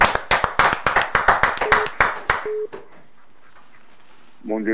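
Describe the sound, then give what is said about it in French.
An audience applauds loudly for the name of the Lord Jesus for about two and a half seconds, a dense burst of clapping that fades out, followed by quiet and then a voice beginning to speak at the end. “Acclamons très fort pour le nom du Seigneur Jésus.”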